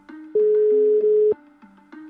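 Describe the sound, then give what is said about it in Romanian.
A telephone tone from an outgoing call to Romanian deputy Gigel Știrbu: one steady, loud electronic beep lasting about a second, set against faint, low background tones, with no one speaking. “Aș propune chiar să-i dau un telefon acum domnului Gigel Știrbu, poate ne explică de ce această alegere”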